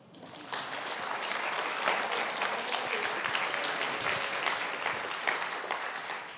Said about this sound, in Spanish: Muchas gracias. Dele un aplauso.